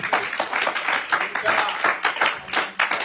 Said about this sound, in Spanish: Ese aplauso es para mí, pero está bueno, pero eso para que triste.